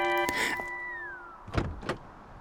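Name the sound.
car passenger door opening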